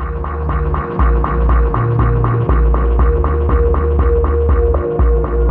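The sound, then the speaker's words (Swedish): Slow ambient music built on deep, sustained bass tones that throb steadily beneath soft, repeating pulses, holding a constant, fairly loud level with no voices. “Han jobbar också med sån här djupbas, sån här bas som jag verkligen älskar.”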